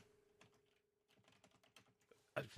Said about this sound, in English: In fact, I, right now I'm doing three things at once. So I'm typing something, I'm talking, and and I'm finding that I can't type and not talk at the same time.